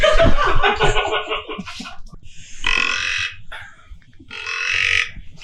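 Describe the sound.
A boy imitates a deer call with a string of loud, grunting vocal bursts, a rough rapid run followed by two longer strained calls with short pauses between.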